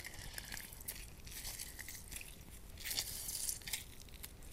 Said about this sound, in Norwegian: Så det første jeg gjør, er å kutte opp limen. Og så skviser jeg limejuice ut i en liten skål.